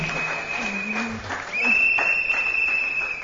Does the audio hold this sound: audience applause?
yes